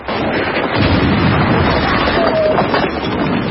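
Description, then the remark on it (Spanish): Grenade explosions from a platoon throwing grenades as it advances through ruins and rubble rumble through a dense, loud battle din, the booms running together into a continuous roar of blasts and heavy low-end thunder with no clear pauses. “El pelotón avanza entre ruinas, escombros y explosiones. Lanzan granadas.”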